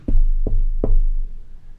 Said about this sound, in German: Du klopfst an die Tür